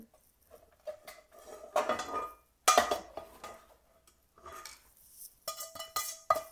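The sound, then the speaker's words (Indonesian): A metal cooking pot is handled and knocked about while cooking, giving several sharp clanks and scraping rattles in irregular bursts. Moderately loud, with no talking. “Nah, pakai panci.”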